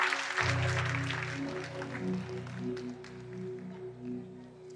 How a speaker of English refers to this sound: Come on, put your hands together give the Lord a hand clap of praise.